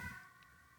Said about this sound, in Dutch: dat was een ambulance. Ik, woon in Haren en, eh, en er wonen hier veel oude mensen. Dus er komen vaak ambulances langs.